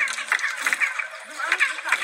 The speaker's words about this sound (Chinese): 那什么特性呢？站在金字塔下面对着金字塔拍手，金字塔会回传一种鸟叫声。我们来听一下哦。